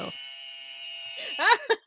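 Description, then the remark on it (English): A game show buzzer sounds one long, steady, harsh electronic tone for about a second, then voices break in with short bursts of talk and laughter as it fades. “So let's explain, let's just demonstrate our buzzers.”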